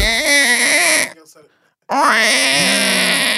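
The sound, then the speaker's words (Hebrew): A loud baby-like wail in two strained bursts separated by a short silence, a grown voice imitating an infant crying as a joke. “סליחה, הבאתי פשוט את התינוק שלי לפה.”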